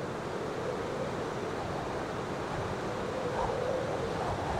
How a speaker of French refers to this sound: Et puis un jour, la tempête.